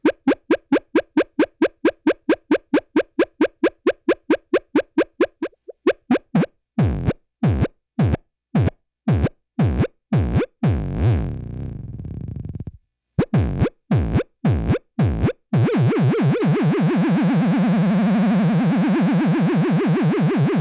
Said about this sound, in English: So let's listen to some UFO sounds.